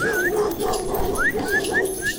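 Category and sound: animal, dog barking and whimpering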